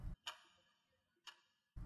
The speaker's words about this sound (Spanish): El tic-tac de un reloj resonaba por todo el interior.